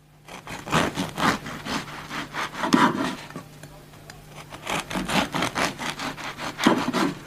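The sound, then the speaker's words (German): A knife saws through a crusty loaf of bread in quick, rhythmic rasping strokes, in two bursts separated by a short pause. “Äh, du darfst jetzt mal das Messer nehmen und aufschneiden.”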